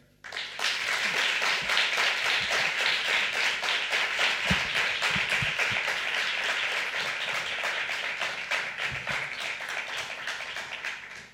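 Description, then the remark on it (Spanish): A large audience applauds steadily and loudly to welcome the director of a documentary, a dense wash of many hands clapping that holds for around ten seconds before cutting off abruptly. “Recibimos con este enorme aplauso a Almudena Carredero”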